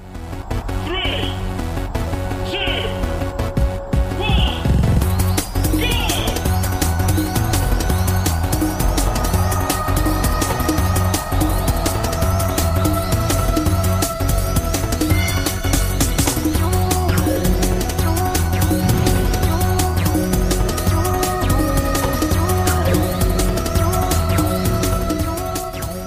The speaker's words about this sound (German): Wir können uns einmal anhören, wie im allerersten Wipeout so ein Rennen eigentlich klingt. Und ihr werdet merken, das ist im Wesentlichen die Musik, ergänzt um ganz sporadische Soundeffekte. Wir hören da einmal kurz rein.